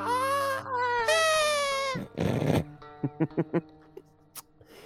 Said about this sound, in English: Close to dawn, you hear a high, piercing scream.